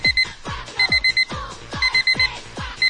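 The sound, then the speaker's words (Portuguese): A cheap pink electronic alarm clock, bought at a stall in Lapa, rings, sounding shrill high beeps in quick bursts of two to four, repeating alongside a rapid warbling sweep, loud and insistent with no voices. “Pegando o nosso despertador de 1,99.”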